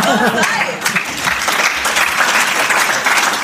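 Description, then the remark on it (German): Steady audience applause, dense clapping from many hands at a loud, even level, with a voice briefly audible at the start. “Die Menge an Applaus irritiert mich.”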